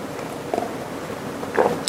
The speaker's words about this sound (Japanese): ちょっとハワイといえどもですね深夜のベランダはちょっと寒いのでですねあったかいコーヒー飲みながら番組やってますけどちょっとコーヒー飲みますね